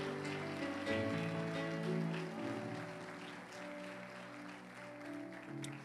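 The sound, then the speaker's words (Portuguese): An audience applauds the Lamb steadily for about six seconds, a dense, sustained patter of many hands clapping at once, with sustained keyboard tones ringing underneath. “Oh, aleluia! Aplauda o Cordeiro.”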